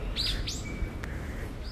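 A bird chirps a few quick, sweeping high notes close by, with a brief thin whistle, over a steady low background rumble and no voices.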